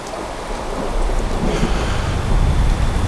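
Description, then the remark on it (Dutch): Steady heavy rain hisses throughout while a deep rolling thunder rumble swells in after the first second and lingers low underneath, fairly loud, with no voices; a summer of constant rain and thunderstorms in the Alps in 1816. “De hele zomer zal het blijven regenen en onweren.”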